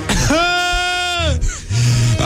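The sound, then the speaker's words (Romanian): A man's voice imitates a goat coughing on the Morning Glory show, giving one loud, drawn-out bleat, then a brief rough break and a short low grunt-like sound. “hai te rog eu frumos, cum tușește capra?”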